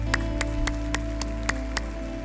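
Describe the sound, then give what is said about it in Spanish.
Steady, evenly paced clapping from a church audience applauding everyone who is coming forward, about seven crisp claps over roughly two seconds, with a constant low hum and no voices. “Toda la iglesia le da un aplauso a todos los que están pasando.”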